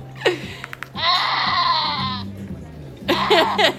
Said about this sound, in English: it's like a goat bleeding, but um, but it does, doesn't it sound like exactly like a screaming old man?